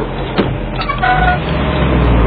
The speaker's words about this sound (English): Caillou was waiting for the school bus to arrive.